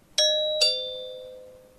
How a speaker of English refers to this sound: Peppa and George have arrived at Granny and Grandpa Pig's house. Mummy Pig rings the doorbell.